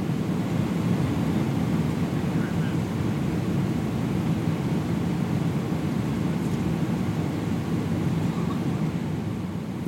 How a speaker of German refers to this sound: so, wir sitzen im Flieger, aber schon lange. Viel zu lang für meinen Viel Geschmack. Viel zu lange.